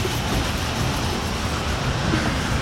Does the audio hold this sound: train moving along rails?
yes